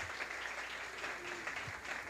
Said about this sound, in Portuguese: Você pode aplaudir ao Senhor pela vida do pastor de vocês?